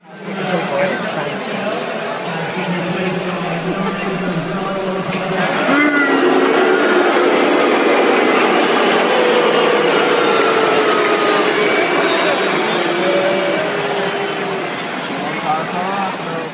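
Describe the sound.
A large stadium crowd roars with sustained, loud booing aimed at a football player, a dense wall of voices that swells after a few seconds and holds steady throughout; near the end someone shouts that he should have signed for Arsenal.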